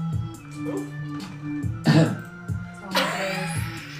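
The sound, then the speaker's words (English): A couple of harsh coughing bursts, one near the middle and another toward the end, over a steady low background hum. No one speaks. “This is my podcast. We're gonna cough.”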